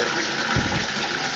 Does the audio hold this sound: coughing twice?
no